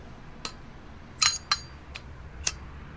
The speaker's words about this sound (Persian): راهم رو کچ کردم و برگشتم توی ماشین منتظر نشستم تا اونا برن یه سیگار روشن کردم